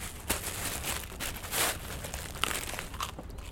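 Crackly crunching and crinkling as a man sitting on a street curb breaks pieces off a loaf of bread taken from a bag and chews, with several brief sharper bursts over a steady rustle and no talking.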